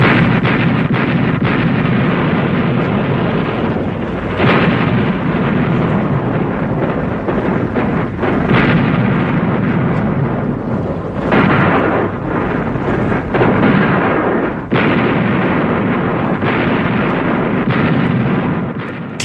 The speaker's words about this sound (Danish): Vi skal lige høre en slagduel mellem britiske fartøjer og tysk artilleri, og det er angiveligt fra slaget om Narvik, hvor britterne generober øh, Narvik med den her landgangsoperation.